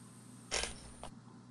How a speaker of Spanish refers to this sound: Abrimos la puerta.